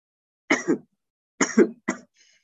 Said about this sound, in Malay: eh, batuk tak saya hari ni.